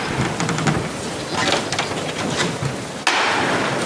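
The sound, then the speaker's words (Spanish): A few sharp knocks of the capataz's hammer on a procession float of the Virgin ring out over a dense crowd murmur, then a louder, violent third strike signals the float being lifted, followed by a surge of noise from the crowd. “Suena el martillo.”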